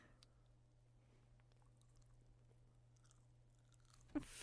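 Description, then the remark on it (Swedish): Someone chews dark chocolate, soft wet crunches and mouth sounds over a steady low hum, with one sharper bite near the end and no talking. “Det här är mörk choklad.”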